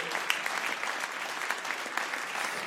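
Sustained audience applause, a dense, steady patter of many hands clapping at an even loudness for the whole stretch, with no one speaking over it.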